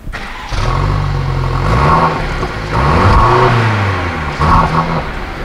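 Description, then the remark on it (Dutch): A car in a showroom is started: its engine cranks and catches near the start, then revs up and down several times with a deep, throaty rumble, loud, with no voices. “Nou, we gaan hem even beluisteren. Ik sling hem aan.”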